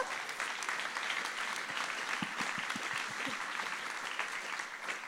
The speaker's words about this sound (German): am 1. Juli werde ich meine Ausbildung zur Grafikerin anfangen. Wuhu, oder? Sein Applaus wert, oder?